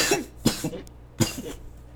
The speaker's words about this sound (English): this cough is killing me.